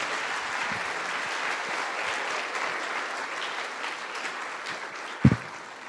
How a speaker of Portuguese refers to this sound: Vamos dar um aplauso a Jesus, meus irmãos, por este ato, em presença de Deus.